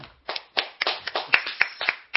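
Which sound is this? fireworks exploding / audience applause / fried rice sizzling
audience applause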